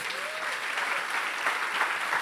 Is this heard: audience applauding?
yes